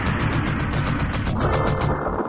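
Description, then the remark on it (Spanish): Rapid, evenly spaced electronic gunshots from an arcade video game, the player's normal shots, blending into a dense, loud wash of game sound with a bright, noisy crackle and no talking. “Mira, mira, vamos a escuchar el, disparo normal y cuando coge la ametralladora, que se escucha aquí bien.”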